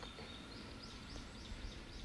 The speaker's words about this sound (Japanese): 今曇ってるのでちょっとあとさっき雨が降っていたのもあって鳥の鳴き声が控えめだったりしますが